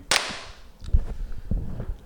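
One sharp, loud hand clap rings out at the start, then fades into quiet with a few soft, low thumps and rustles.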